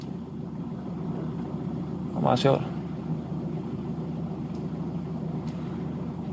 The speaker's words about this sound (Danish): Nå, men øh, jeg skal lige øh, have vendt bilen her faktisk og tilbage i samme vej.